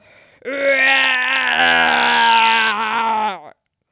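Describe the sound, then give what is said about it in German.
A six-month-old baby in a pram imitates a lion's roar: one loud, sustained, strained vocal growl lasting about three seconds, holding a steady pitch before cutting off abruptly. “Und dann meinte er auf einmal, und der ist erst sechs Monate und er weiß nicht, was er da tut, aber er meinte auf einmal, den Löwen machen zu müssen.”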